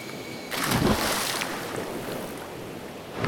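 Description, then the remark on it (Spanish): A steady, broad wash of surf at Terco beach near Arusí, a hot-springs area, swelling at about half a second into a louder rush of breaking waves that then rolls on continuously, with some wind noise mixed in. “Estamos en la playa de Terco hasta Arusí, que queda uno de los corregimientos de termales, Partaoya Arusí.”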